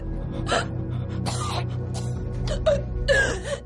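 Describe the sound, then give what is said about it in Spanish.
A woman lying on her back chokes and gags, coughing up vomit and convulsing, in a series of harsh, wet gasping bursts, fairly loud, separated by brief pauses over a steady low background hum. “Está tumbada boca arriba mientras tose vómito.”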